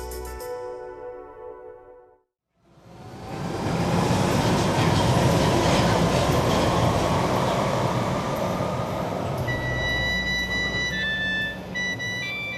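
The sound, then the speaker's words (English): After a brief moment of quiet, an underground train roars through a tunnel in London, a loud, continuous rumble with rattling wheels and thin metallic squeals rising near the end. “This tunnel here is where Guo Yi first played music when he came to London.”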